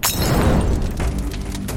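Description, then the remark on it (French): A loud explosion sound effect: a sharp blast with shattering debris, followed by a deep, sustained rumble that lingers with scattered crackles for nearly two seconds. “Mais le cocktail dont nous allons parler dans cet épisode ne fait pas partie de ce qu'on peut siroter tranquillement. Il est plutôt du genre explosif”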